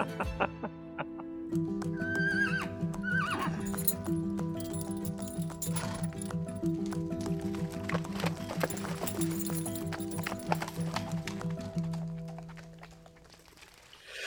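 Hooves clip-clop steadily over a sustained low droning backdrop, with a brief horse whinny early on; the sound is fairly loud, with no talking.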